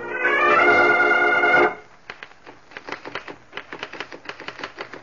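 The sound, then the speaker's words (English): A brief sustained musical tone fades out, then a slender, nervous man in his early 30s, seated at a desk in a large room of a mansion overlooking the Hudson River about 50 miles above New York City, types a letter on a typewriter with a steady run of quick keystrokes, some pausing briefly between bursts. “a slender, nervous man in his early 30s, is seated at a desk typing.”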